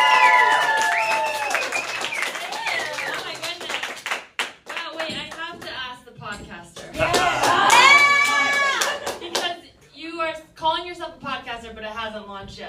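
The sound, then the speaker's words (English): Steady audience applause at a comedy show as the final comic, Teresa Lee, is brought up, a dense patter of clapping hands that swells and dips, opening over a brief bright musical jingle, with excited voices and whoops rising above the clapping. “Start clapping right now for Teresa Lee, everybody!”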